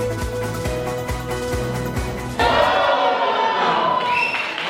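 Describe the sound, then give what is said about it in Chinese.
Steady, evenly spaced low thumps like drumbeats, then a sudden loud burst of crowd cheering and excited shouting as sumo wrestlers enter for a sumo show at a restaurant in Tokyo, Japan, carrying on to the end. “相扑力士上场，接受群众欢呼。”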